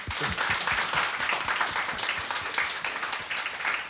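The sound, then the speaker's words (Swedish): A studio audience of the radio show Radio Totalnormal, recorded at Fountain House, Götgatan 38, Stockholm, applauds the show's guests steadily: a dense wash of many hands clapping at a constant loudness for the whole four seconds, with no one speaking over it. “Applåd!”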